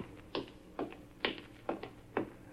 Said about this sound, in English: I could hear her high heels clicking toward him.